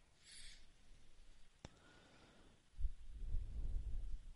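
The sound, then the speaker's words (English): Rain falls with a steady, soft hiss, joined partway through by a deep rumble like thunder that swells and lingers. A single sharp click and a brief high chirp stand out early on. “Okay, it's raining.”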